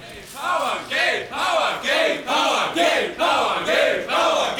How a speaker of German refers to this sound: Und weitere Männer setzen zum Angriff an. Immer wieder brüllen sie.